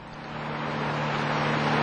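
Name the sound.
car engine driving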